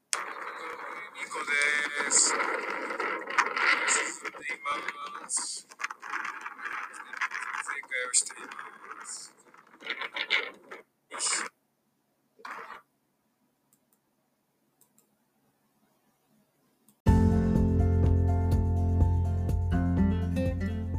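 Strong wind on the Uyuni salt flat roars and buffets in loud, uneven gusts for about twelve seconds, breaking into choppy bursts before falling silent. Music begins a few seconds later.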